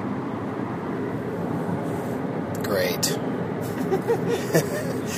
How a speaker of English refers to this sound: we're driving in a Chevy Cruze. We've been in those before. Yeah, we have. Uh, Chevy's little four door sedan, decent sized truck, and uh, nice gas mileage.